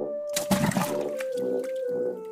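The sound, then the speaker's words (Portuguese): A loud splash as something jumps into a river, followed by churning, bubbling sounds, all over a steady humming drone that continues throughout. “Pulei no rio.”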